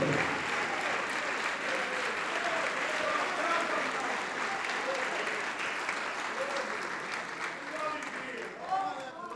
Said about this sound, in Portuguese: Vamos aplaudir.